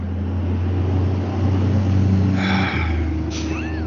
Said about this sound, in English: just gonna wait for that truck to go by. Yeah. So that's a big one. It sure was.